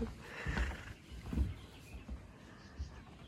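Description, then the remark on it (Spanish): Lions roar far off near a safari camp, a few low, rumbling bursts rising and fading against quiet outdoor ambience, with no one speaking. “Anoche, toda la noche y ahorita en la mañana se oían rugir los leones.”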